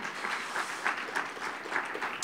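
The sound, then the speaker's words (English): An audience at a church gathering applauds to welcome first-time visitors, many hands clapping together in a dense, steady patter that holds at an even level throughout, with no voices over it. “Let's give all them a big hand clap for being here.”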